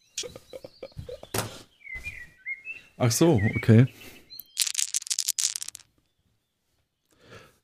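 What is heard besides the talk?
die being rolled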